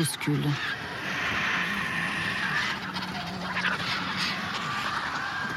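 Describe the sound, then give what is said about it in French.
A crowd of about thirty raptors hisses, wheezes and squabbles over an animal carcass in the garrigue, a dense, continuous scuffle of harsh breathy calls and grunts, steady throughout. “Puis, pris de frénésie, ils sont une trentaine à plonger sur la carcasse, et c'est la curée. Ça chuinte, ça souffle”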